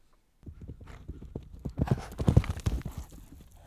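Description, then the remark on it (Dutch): Hooves of a black horse carrying a knight in black armor clip-clop along a path at night in a steady rhythm. They start after a brief silence and grow louder, with several sharp, distinct hoof strikes. “Opeens hoorde hij de treden van een paard op het pad.”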